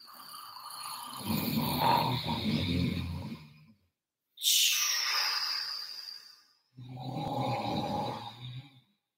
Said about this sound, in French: Bientôt, le couple de SDF se rendort. Leur ronflement s'élève dans le tunnel.